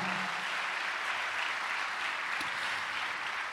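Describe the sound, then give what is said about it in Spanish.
An audience at a church sermon claps steadily as applause for God, a dense, even wash of many hands that holds at a constant level throughout, with no voices rising above it. “¿Cuánto le dan un aplauso a Dios por eso, amado hermano?”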